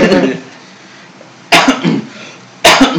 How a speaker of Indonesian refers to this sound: aduh batuk lagi nih ya